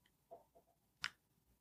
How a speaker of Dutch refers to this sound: Ah, wat is dat lawaai? Nou, ah, dat is, dat is die boiler zeker. Is dat, is dat verwarming of Ja?